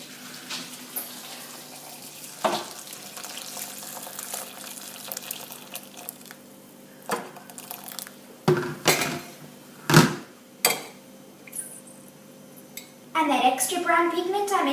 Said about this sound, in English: Watch as my magical boiling water does the reveal.